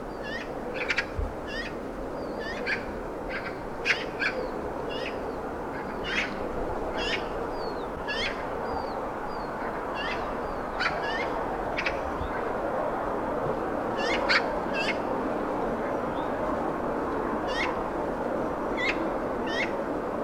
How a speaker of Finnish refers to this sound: pari kolme harakkaa naukuu ja säksättää.